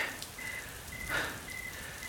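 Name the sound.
rain falling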